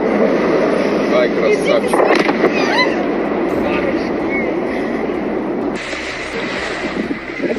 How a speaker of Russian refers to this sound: Вот он, смотри. Ну, мам, это дрон, Ой, смотри.